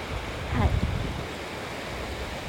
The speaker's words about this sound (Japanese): 両足のところ波が来たところです